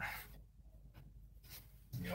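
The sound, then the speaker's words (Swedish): A pen scratches across a paper note in a few short, separated strokes, fairly quiet, with a faint background murmur underneath. “jag ska ta en penna här borta bara.”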